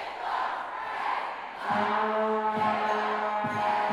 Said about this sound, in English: everybody in the main lobby of Ida Noyes is gathered, and some people are wearing their Scav Team shirts, and it sounds like they're chanting, Whales aren't fish. Oh, here's a new chant now.